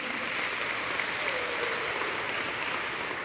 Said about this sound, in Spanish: Démosle un aplauso, por favor, a todo el equipo.